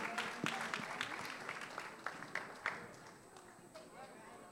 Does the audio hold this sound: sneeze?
no